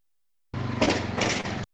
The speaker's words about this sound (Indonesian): Ya, dibalas dengan suara motor.